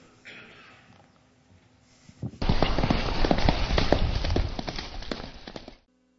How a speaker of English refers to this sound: The horse is completely blind. Able to jump over things, to go up inclines and down, to ford streams.